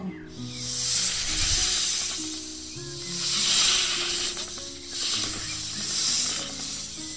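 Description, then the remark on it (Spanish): A voice imitates a snake, letting out three long, drawn-out hisses that swell and fade in a slow rhythm over a soft, low musical backing. “Como eran las serpientes, ¿no?”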